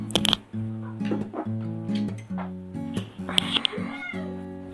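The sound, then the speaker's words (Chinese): A cat meows repeatedly in a series of loud, drawn-out, whiny cries that waver in pitch, with a few sharper yowls breaking in and no one talking. “稍等啊，我再去看一下那猫的情况。”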